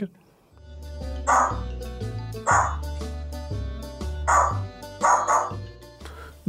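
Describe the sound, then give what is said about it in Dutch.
A bird that learned to bark by imitating a neighbour's dog gives about six sharp, bark-like yaps in uneven pairs, over steady background music. “Eh, wel een vogel. Ja, dat klopt. Die heeft leren blaffen door de hond van de buren na te bootsen.”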